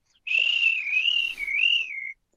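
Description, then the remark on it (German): A person whistles in imitation of the trill whistle a milkman blew in the streets of Weil am Rhein: one sustained, high, gently wavering note lasting about two seconds, with a brief dip near the end, clear with no talking. “Und wenn er da war, hat er gemacht mit der Trillerpfeife.”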